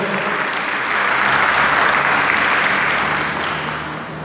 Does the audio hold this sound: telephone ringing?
no